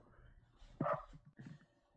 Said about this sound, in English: There goes my dog. yeah, just your dog.